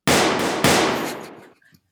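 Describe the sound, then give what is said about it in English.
Two loud blasts from a double-barrel shotgun fire about half a second apart, each a sharp booming crack that rolls into a long, fading rumble, with no voices. “Here's two barrels of it. Need a shotgun.”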